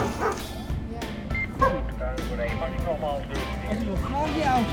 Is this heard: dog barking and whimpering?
yes